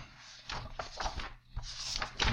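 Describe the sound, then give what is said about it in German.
Soft papery rustling and several quick swishes as someone flips through the pages of a book one after another, looking up a character's name. Quiet, with no voices. “Ihr hört gerade das Blättern im Hintergrund.”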